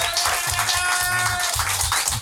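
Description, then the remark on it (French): A crowd applauds steadily with dense, overlapping claps filling the whole moment, loud, with no voices on top. “s'il vous plaît, un tonnerre d'applaudissements pour Gambetta Télé”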